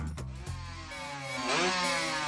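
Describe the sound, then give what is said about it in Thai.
A loud motorcycle engine with a modified exhaust idles roughly with a couple of blips, then revs up sharply into a rising, raspy roar; no voices. “เฮ้ย ท่อดังได้ใจเลยว่า”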